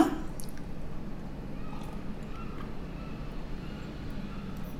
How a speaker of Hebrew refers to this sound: וואי, זה טעים. לגמתי ארבע או חמש לגימות של מים קרים עם אלוברה. זה המשקה שאני הכי אוהבת.